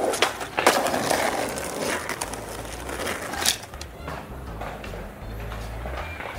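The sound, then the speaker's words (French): Skateboard wheels roll and grind over urban pavement in a steady rumble, broken by sharp clacks and pops of boards hitting the ground, with no voices. “souligne le chercheur qui affirme reconnaître à l'oreille les places montpelliéraines Albert Ier ou Comédie au bruit distinct que font les skates dans ces deux espaces.”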